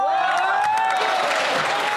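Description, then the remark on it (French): Applause in the Canadian parliament as Conservative members applaud the Minister of the Environment: a dense, steady patter of many hands clapping at once, fairly loud, with voices calling out and murmuring underneath for the full two seconds. “Est-ce que le ministre de l'Environnement pense que c'est une bonne nouvelle quand les conservateurs l'applaudissent?”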